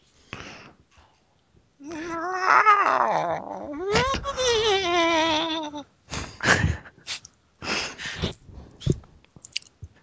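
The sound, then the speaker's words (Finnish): A person practising imitating a yowling cat with long, wavering, drawn-out wails that rise and fall in pitch, followed by several shorter breathy, huffing sounds, fairly loud. “Mä harjoittelin mun mouruamista.”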